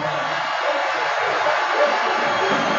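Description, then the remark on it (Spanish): A huge crowd at the Bernabéu stadium applauds Modric in a dense, continuous wash of clapping and cheering that holds steady and loud for the whole few seconds, with no individual voices standing out. “el aplauso gigante de Bernabéu a Modest.”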